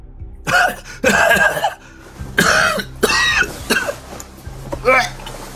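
Violent coughing in about six harsh, uneven bursts, some throaty and strained, with short gaps between them. The fits come loud and ragged, with no words spoken.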